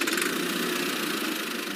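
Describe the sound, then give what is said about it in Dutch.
A tractor engine runs steadily as farmers take their tractors out of the barn: a constant loud rumble with a gritty, slightly knocking texture and no change in pace or volume. No voices are heard. “Maar dat verandert al snel wanneer een aantal boeren hun trekkers uit de schuur halen.”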